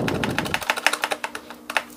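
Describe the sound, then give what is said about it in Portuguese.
A computer keyboard's backspace key is tapped over and over in a quick, steady rhythm to delete text, with sharp clicks and a brief low rumble at the start. “Pronto, apaga, apaga, clica e vai voltando com backspace aí do teu teclado para apagar”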